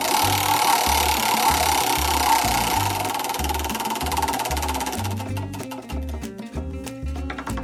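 A large prize drum spins with a loud, rapid clattering whir that gradually slows, the rhythmic clicks spreading out into distinct ticks as it winds down toward the end.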